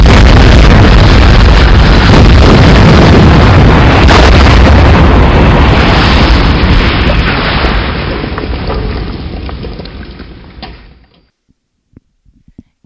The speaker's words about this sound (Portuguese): Mas houve uma explosão, não houve? Houve.